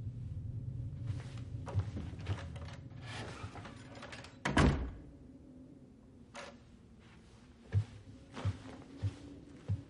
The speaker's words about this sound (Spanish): Abre la puerta del aseo.